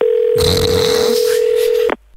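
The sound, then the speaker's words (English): A telephone call is dialled and rings: a phone line hums with one steady, unbroken mid-pitched tone for about two seconds, overlaid by a rough burst of handling noise, then cuts off abruptly. No one speaks. “He's a really good scout, so we'll just give him a buzz and uh, we'll see what he's up to.”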